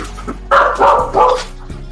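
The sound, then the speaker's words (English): A dog barks furiously, three loud, harsh barks in quick succession, then falls quiet against a low background hum. “Upset. Right furious. sound like a DEA dog.”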